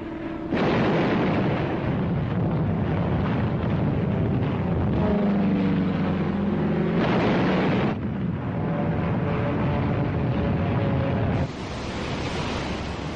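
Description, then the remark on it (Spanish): A steady, loud roar of explosions as wave after wave of American aircraft bomb a Pacific island ahead of its invasion, the blasts merging into a continuous low, rumbling thunder, with a droning tone rising through the din midway and no voices. “Tandas y más tandas de aviones norteamericanos preparan el terreno mediante intensos bombardeos aéreos.”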